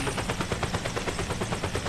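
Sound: voice imitating a helicopter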